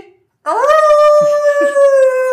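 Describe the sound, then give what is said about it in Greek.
A person's voice imitates a wolf howl for an intro, a single sustained rising tone held for nearly two seconds, loud, with faint background murmurs underneath. “Θα κάνουμε όντω κραυγέ λύκων για το intro.”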